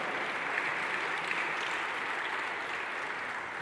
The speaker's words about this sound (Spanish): Oh, dale fuerte ese aplauso.